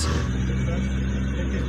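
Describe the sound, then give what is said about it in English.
A loud speedboat engine drones steadily with a deep, throbbing rumble, holding a constant pitch throughout, with no voices. “Good thing this is a speedboat.”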